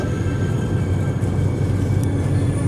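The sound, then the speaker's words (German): Loud, steady train noise heard over a phone connection fills the whole stretch, a dense low rumble with a faint whine above it and no pauses, drowning out everything else. No one speaks. “Weil der Zug nimmt gerade das gesamte Soundspektrum dieser Telefonverbindung an.”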